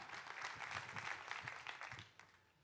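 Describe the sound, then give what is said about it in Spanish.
An audience applauds to God during a sermon, a dense steady rush of many hands clapping at once that holds strong for a couple of seconds before tapering off near the end. “Den un fuerte aplauso a Dios por eso.”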